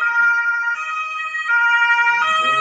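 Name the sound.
ambulance siren passing outside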